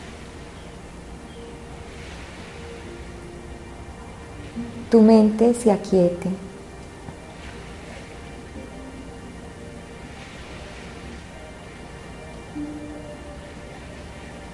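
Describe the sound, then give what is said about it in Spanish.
A steady, soft wash of ocean waves fills the background, low and continuous without distinct breaks, while a calm voice speaks a short phrase partway through, guiding a breathing meditation. “Intenta que poniendo tu atención en tu respiración y en el sonido de las olas”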